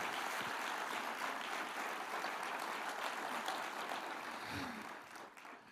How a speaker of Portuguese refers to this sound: Dê para Jesus uma forte forte salva de palmas.